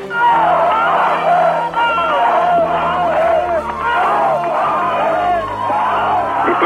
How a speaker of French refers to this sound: Et c'est la ruée des centaines de voitures, des milliers de gens à pied se présentent au point de passage du mur où je me trouve dans un concert d'avertisseurs et de cris d'allégresse.